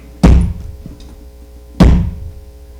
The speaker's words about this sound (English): Can you hear that hammer?